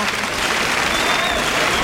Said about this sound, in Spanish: Y el público arrecia la protesta con las palmas de tango.